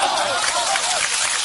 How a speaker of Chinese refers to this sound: 可以鼓掌了。